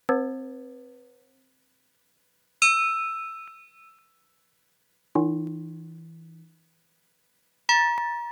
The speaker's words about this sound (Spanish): Aquí está la campana de reset, vamos a escucharlo.